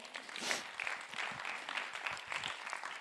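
An audience claps steadily, a dense, crackling wash of many hands that swells briefly near the start and then holds an even level throughout.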